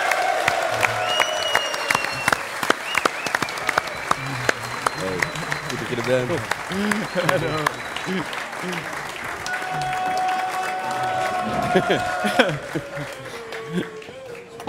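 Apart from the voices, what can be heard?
audience applause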